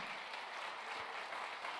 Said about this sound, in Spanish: ¿Cuánto le dan un aplauso fuerte al Señor?